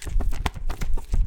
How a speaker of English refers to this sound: Here's the sound of all of the um the shipping labels I printed.